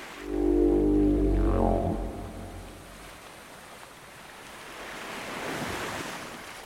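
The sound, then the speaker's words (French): Ocean waves surge and wash in the open sea, a heavy low rumbling swell at first that eases, then a second hissing wave rises and recedes, with no voices. “Pinocchio, redevenu un petit pantin de bois, nage en pleine mer avec les poissons.”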